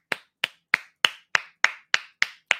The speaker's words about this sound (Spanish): Un aplauso para Jordi Navarro.